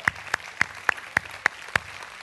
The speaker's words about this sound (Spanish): Es más, Dios se dio un aplauso a sí mismo cuando te hizo. Dáselo tú a Él ahora.